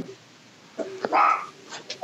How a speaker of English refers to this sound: the dogs are going crazy.